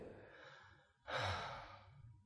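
A person breathes in slowly, deeply and low, softly, then lets out a louder, fuller exhale with an audible 'ah' that swells after a brief pause and gradually fades, with no talking.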